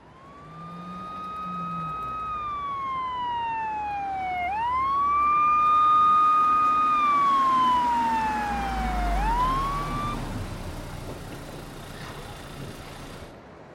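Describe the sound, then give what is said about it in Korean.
A police car siren wails in long rising and falling sweeps, loud, over low traffic rumble, then cuts off abruptly near the end as the police arrive. No one speaks. “얼마 지나지 않아 경찰이 도착했다.”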